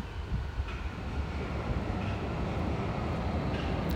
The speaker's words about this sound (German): ach ja, und hier fährt die U-Bahn.